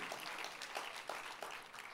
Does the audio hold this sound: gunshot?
no